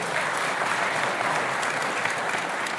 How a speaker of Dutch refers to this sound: Fijn dat u eh, wilt vertalen deze dienst, dat u die vrijmoedigheid pakt. Heel fijn, ook een applaus voor deze vertaalster.